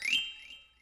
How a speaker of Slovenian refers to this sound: Slišimo ženketanje srbrnega pribora in porcelanastih skodelic, na to Bernadeta pozvoni z zvončkom da odmeva po vsej sobani.